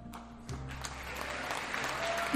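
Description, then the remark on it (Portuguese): The hosts clap their hands together in brief, scattered applause, with a low steady hum underneath and no talking. “Eu queria as palminhas do Zoom, mas não tem, então a gente faz assim.”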